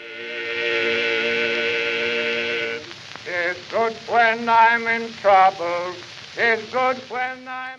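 Crackly old 1909 song recording in a remastered edition: singing voices hold one long harmonized note, then move into rhythmic sung phrases, all under a steady layer of surface hiss and crackle.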